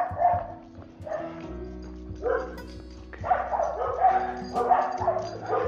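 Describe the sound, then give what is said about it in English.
Two dogs bark repeatedly from some distance away on a Sunday morning just after eight o'clock, their overlapping barks coming in uneven bursts over a low, steady background hum. “right, just out of out of reach of those uh, two dogs now, thank goodness.”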